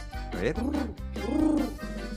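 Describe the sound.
A person's voice imitates a dove's song with two low, rounded, rising-and-falling hoots in quick succession, fairly loud, with no other talking.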